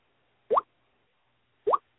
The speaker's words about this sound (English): phone is still doing that fun noise that I've asked him repeatedly to mute his phone during the show. Yeah, that noise,